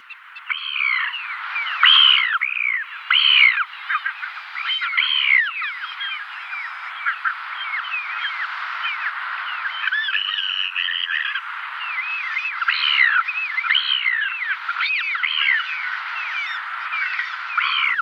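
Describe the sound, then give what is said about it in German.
A dense, steady chorus of ivory gull calls: many overlapping short, squeaky, high-pitched notes repeating rapidly and continuously at moderate loudness, with no talking. “Und Tonaufnahmen dieser Elfen bei Möwe, die sind echt rar.”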